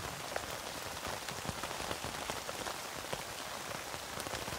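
Steady rain pattering on a tent, a dense, even hiss scattered with crisp individual drop taps throughout. No voices, just the constant downpour at a moderate level.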